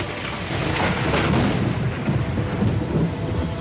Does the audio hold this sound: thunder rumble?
yes